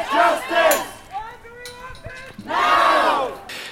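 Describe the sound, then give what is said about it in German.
Protesters chant slogans in loud, rhythmic bursts, a crowd of voices shouting together in two strong surges with a quieter stretch of scattered calls between them. The activists are at a gate in a harbour area, sitting on rail tracks to block coal delivery by train, with banners, early on a Saturday morning. “Mit Transparenten und Sprechchören machen die Protestierenden auf ihr Anliegen aufmerksam.”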